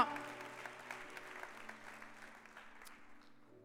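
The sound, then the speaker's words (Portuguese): An audience applauds the Lord in worship in a dense, steady wash of clapping that slowly fades over a few seconds, with a faint sustained tone lingering beneath it. “Aplauda o Senhor, ele vive, aleluia.”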